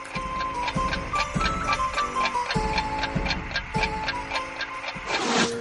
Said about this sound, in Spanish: Con el reloj mecánico se introdujo el sonido tic-tac.